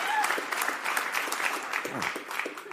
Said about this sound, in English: finally, it sounds like a full crowd.